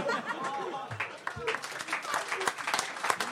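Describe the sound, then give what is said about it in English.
A crowd claps in a quick, scattered patter that keeps going throughout, with laughter and chattering voices mixed in underneath the applause. “Why are we clapping oh, now?”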